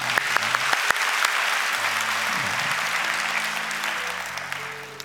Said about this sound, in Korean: 우리 결단팀 잠깐 일어나 볼까요? 네, 우리 박수로 축복하겠습니다.